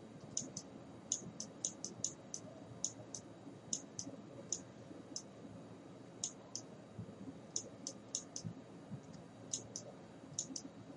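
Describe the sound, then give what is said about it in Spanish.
Keyboard typing of the search word "comprometer": a run of quick, light key clicks in irregular bursts, fairly quiet, with no voices. “Vamos a poner la palabra comprometer, pues muy buena, sea esa o no.”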